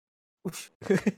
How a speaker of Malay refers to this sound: Suara Batuk. Ah, Kau batuk.